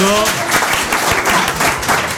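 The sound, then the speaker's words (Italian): A crowd applauds steadily, dense overlapping claps forming a loud, continuous wash of noise with no pauses, briefly overlapping a fading held musical tone at the start. “Un applauso.”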